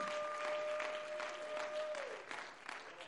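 An audience claps their hands in praise to the Lord in dense, sustained applause, many overlapping claps forming a steady wash of sound, with a held organ-like tone sliding down and fading partway through.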